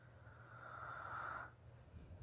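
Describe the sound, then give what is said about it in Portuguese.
A long, breathy exhale close to the microphone, rising in loudness for about a second and a half before cutting off, with a low steady hum underneath. “Eu estou respirando muito em cima do microfone, espero que não esteja pegando aí.”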